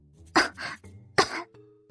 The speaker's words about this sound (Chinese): 裴婉月特别的乖巧，说完还咳嗽一声。